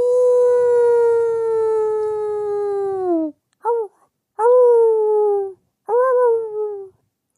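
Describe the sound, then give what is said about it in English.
A long, steady wolf-like howl that slowly drops in pitch, followed by a short yip and two more drawn-out howls, loud with brief gaps between. “Oh, I, I can't howl. I'm a rat. I'm not a wolf.”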